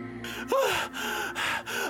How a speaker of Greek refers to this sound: Σύντομα, η θύελα άρχισε να κουράζεται. Με τόσο φύσιμα και ξεφύσιμα, είχε εξαντληθεί.